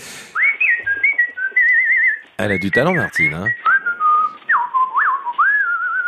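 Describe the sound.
A person whistles a melody with clear, sliding tones, fairly loud. Whistling is briefly interrupted by a short burst of talking partway through, then the tune resumes.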